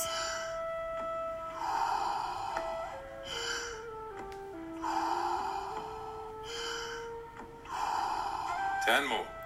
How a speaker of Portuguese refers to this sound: Inspire até a barriga, depois ao peito e solte, como uma onda. Respire de forma circular. Inspire profundamente e solte. Apenas siga o fluxo da respiração. Sem pausas entre as inspirações e as expirações.